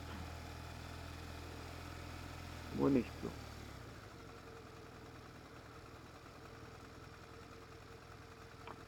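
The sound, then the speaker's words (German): A car engine idles with a steady low rumble, cutting off after a few seconds; a voice briefly speaks over it, then only faint background noise remains. “Ich habe jetzt echt gedacht, die kriegen Motocast ohne Autos hin.”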